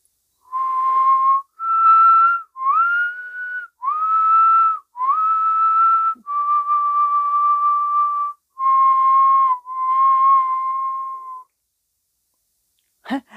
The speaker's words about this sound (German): Und dann pfiff er eine ganz langsame, lange Melodie.